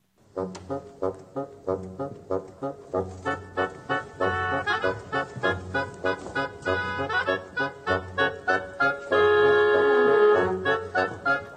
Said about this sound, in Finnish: Viime töikseen ennen lähetyksen loppua yksi kanavan omistajista sanoi ei sodalle ja ruutuun ilmestyi reiluksi kymmeneksi sekunniksi pätkä Tchaikovskin joutsenlampea.